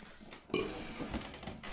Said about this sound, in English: Shout out to burping people.